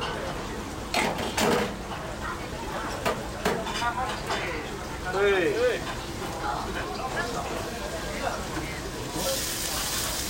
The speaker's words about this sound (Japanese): お来ましたねこれはね卵きくらげ炒め作ってますいやすごくいい音ですよね、この中華屋さんのこの鉄鍋、町中華のね、